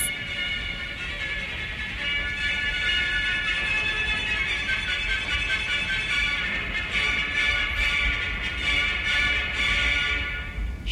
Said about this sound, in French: 17 décembre, 8h32, dans la cabine B. Un air de musique classique s'élève crescendo dans les enceintes du Transmerveilleux Express.